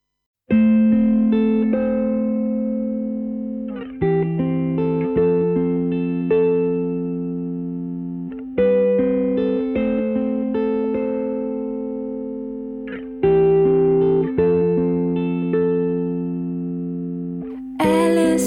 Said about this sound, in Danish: Nu skal vi lytte til sangen …, der bliver sunget af ….